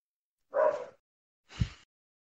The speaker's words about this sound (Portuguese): Acho que o cachorro quer participar aí, hein? É, o cachorro.